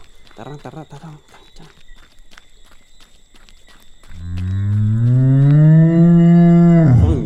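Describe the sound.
A person talks briefly, then a cow lets out one long, loud moo that holds steady for about three seconds before trailing off, with faint ticking sounds in the background.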